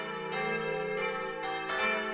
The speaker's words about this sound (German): Und man hat den Vorteil, wenn man jetzt also tatsächlich eine interessierte Gemeinde hat für ein paar Glocken, die könnten sich das Glockengeläut also vor Ort live auch nochmal anhören.